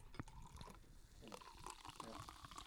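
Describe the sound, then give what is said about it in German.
A fizzy, sparkling drink pours steadily into a glass at a tasting, with a continuous bubbling hiss and small clinks, fairly quiet. “Den, den hört man richtig gut. Der macht es direkt voll.”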